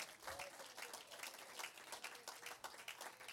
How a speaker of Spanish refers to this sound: Denle un aplauso al Señor por su palabra.